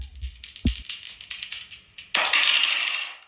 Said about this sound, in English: Let's roll these dice and see what we're gonna talk about today. what do I say? Roll them.